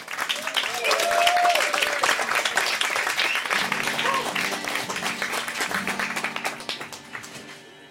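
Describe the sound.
A large audience claps steadily, a dense crackle of applause that stays loud for several seconds before gradually thinning out, with faint tonal sounds from instruments or voices underneath.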